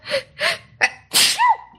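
A loud sneeze: a couple of sharp, breathy gasping inhales build up before the forceful, explosive burst, ending with a short voiced trailing sound. No one speaks.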